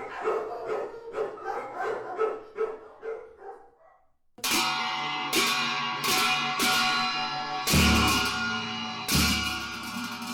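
Dogs bark in a quick, steady string of sharp yelps for several seconds, then a louder, dense ringing wash with heavy periodic hits takes over. No one speaks.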